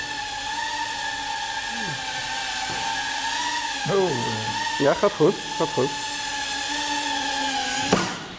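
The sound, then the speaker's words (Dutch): A small drone buzzes steadily with a high, even whine as it hovers and drifts slowly, flown very slowly while trying to land it back on a table, while a few short spoken remarks break in over the constant motor drone. “Kijken of we hem weer op de tafel kunnen landen.”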